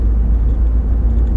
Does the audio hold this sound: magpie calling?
no